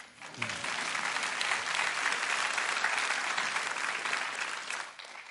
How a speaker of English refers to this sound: You can go ahead and applaud.